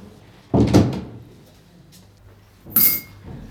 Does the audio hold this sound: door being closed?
yes